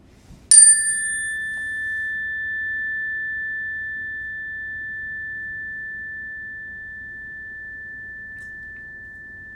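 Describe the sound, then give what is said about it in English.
A single bell is struck once during a group breathing exercise, a bright metallic ring with one steady high tone that lingers and slowly fades over about nine seconds, with no talking; listeners raise a hand when they no longer hear it. “Okay, so when you don't hear the bell anymore, you will raise your hand.”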